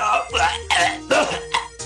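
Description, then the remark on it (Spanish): A loud fit of harsh coughing from smoking cigarettes: four or five rough, throaty bursts in quick succession, each hacking cough breaking off before the next. “Esta cosa te hace toser.”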